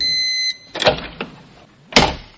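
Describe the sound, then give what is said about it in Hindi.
A door opens and shuts, with a couple of thuds and a final sharp clunk of it closing, preceded by a brief steady high tone. No one speaks. “करीबन दो मिनट के बाद भी चाय जब टेबल पे नहीं पहुंची और दरवाजे की आवाज एक बार फिर से आई”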